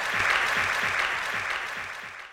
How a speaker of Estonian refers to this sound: väga head lõpusõnad, teeme suure aplausi